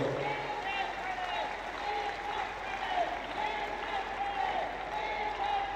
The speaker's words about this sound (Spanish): Y ya para cerrar, Xochitl, hoy, frente a la que puede ser nuestra primera mujer presidenta, y por favor, denle un gran aplauso a Xochitl, porque creo que puede ella tener aquí el cambio para nosotros.